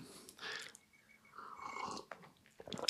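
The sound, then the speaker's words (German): Someone takes a sip of coffee: soft slurping and wet mouth noises, then a swallow and a few quiet clicks, with no talking. “Aber jetzt muss ich erstmal einen Schluck Kaffee trinken.”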